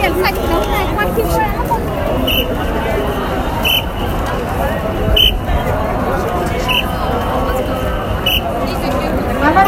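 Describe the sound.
A dense, steady crowd hubbub at a street crossing in Shibuya: overlapping indistinct voices and footsteps fill the scene, with short high chirps repeating about every one and a half seconds above the din.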